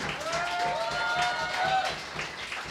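An audience applauds the people serving at the bar and in the kitchen at a workshop event, steadily for a few seconds: a dense patter of many hands clapping at once, with a sustained tonal whistle or cheer rising over the crowd partway through.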